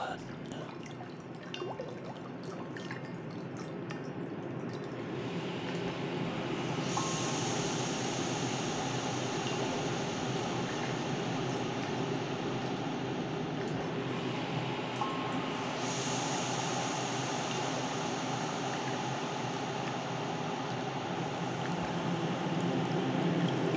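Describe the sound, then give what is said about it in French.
A river flows steadily, a dense continuous rush of water that stays full and even throughout, with a brighter hiss rising and easing at moments. The river runs some 950 km from its source to its delta. “Écoutez. La rivière polyphone. La rivière polysone.”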